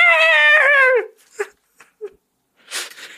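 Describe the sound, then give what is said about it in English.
A person voices a high-pitched, strained robotic scream lasting about a second and sagging in pitch at the end, followed by a few short clicks and a breathy, laugh-like exhale. “It's so like high pitched and like specific, but it almost sounds like a high pitched like robot scream. I can't I can't do it. I just tried. My attempt was the”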